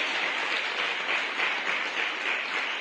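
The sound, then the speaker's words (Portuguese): Sustained applause from a crowd for Jesus Christ, a dense steady wash of many hands clapping at once with no individual claps standing out, holding an even loudness throughout without any voices. “¿Por qué no das un aplauso a Jesucristo?”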